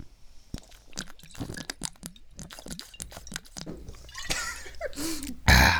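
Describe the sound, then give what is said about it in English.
Wet slurping and gulping noises repeat in quick bursts as several people drink on a count of three, including malt liquor, one chugging a whole bottle, with a few breathy exhales and a louder splashy swallow near the end. “So on three, we're all gonna take a drink of whatever we got with us.”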